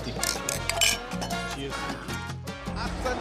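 glasses clinking

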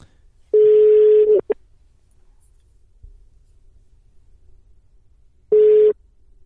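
telephone call tone

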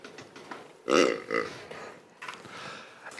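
burp

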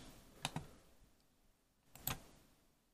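computer mouse clicking

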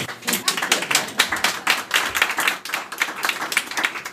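audience clapping

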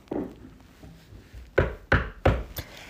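knocking on a door

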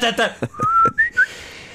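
person whistling a tune

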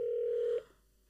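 mobile phone ringing

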